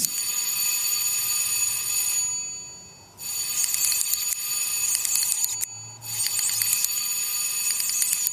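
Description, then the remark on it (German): A theatre's backstage electric bell rings loudly and continuously as the third bell signal, in three long bursts separated by brief pauses, a harsh metallic ringing with no voices. “Das war das dritte Klingelzeichen.”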